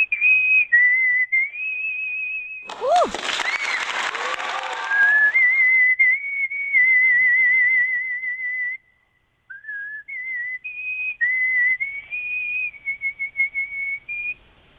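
A person whistles a song melody in a steady, clear high tone, with sustained notes and a few quick trills, briefly interrupted around the third second by a burst of noisy cheering or clapping.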